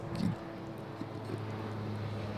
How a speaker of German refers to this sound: da kommt ein, ein, Hubschrauber. Das ist mit Sicherheit auch einer, der ja, ja. vom Einsatz zurück